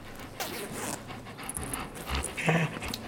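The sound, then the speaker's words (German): A dog sniffs eagerly at a jacket given to it to pick up a scent while searching for a lost mobile phone: quick, breathy snuffling bursts mixed with rustling fabric and a brief zipper clink, with light panting between sniffs. “Ich gebe ihr mal mein Jäckchen, um daran zu schmücken.”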